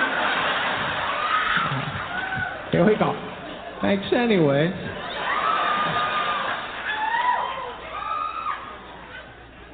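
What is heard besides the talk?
audience clapping and cheering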